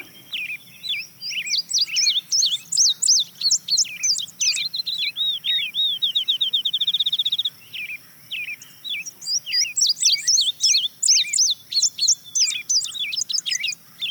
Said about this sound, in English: And the next bird you're going to hear is an indigo bunting.